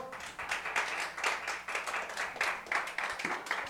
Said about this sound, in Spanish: Dele ofrenda de palmas al Señor.